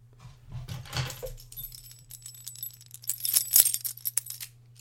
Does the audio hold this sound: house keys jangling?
yes